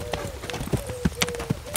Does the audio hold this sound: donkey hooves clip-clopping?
yes